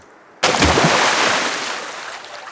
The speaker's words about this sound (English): a big beaver slapped his tail on the water. A warning we were too close to his cozy home.